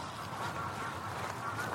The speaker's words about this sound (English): Oh, they don't really like me, I don't think, the Egyptian geese.